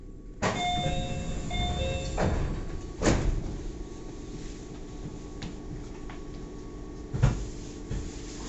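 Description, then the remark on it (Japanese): Train doors open at a brief stop at Hoshido station (MY9) with a two-tone chime repeated twice, followed by a loud pneumatic thump and hiss, then steady rumbling with a few more sharp clunks. “ドアが開きますご注意ください”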